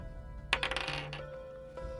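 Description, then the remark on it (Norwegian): Dice clatter onto a hard tabletop, a sudden burst of quick rattling clicks that settles within half a second, leaving a faint ringing tail and quiet background noise. “Vil du komme og se hva jeg rulla?”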